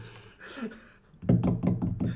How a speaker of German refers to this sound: Hör auf, da die ganze Zeit zu klopfen.